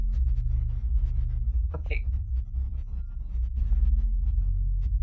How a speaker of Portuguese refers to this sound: Não, o cara parou o carro dele aqui na minha frente na minha porta, velho.